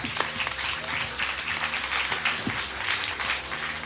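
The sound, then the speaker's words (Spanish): Sustained applause from an audience, a dense, steady wash of many hands clapping throughout, moderately loud, with faint murmuring voices underneath. “Aplausos de ti, aplausos de Qué historias, ¿no?”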